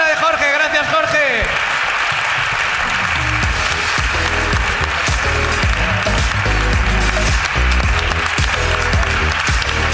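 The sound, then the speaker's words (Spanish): Loud, sustained applause from an audience for someone who passed, a dense wash of clapping with a few voices and cheers mixed in, continuing steadily after a brief spoken moment at the start. “Aplauso para la”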